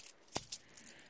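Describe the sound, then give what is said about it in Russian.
Loose coins of small change clink and jingle quietly, with one sharp clack followed by a few softer metallic rattles, no voices. “Берете мелочь”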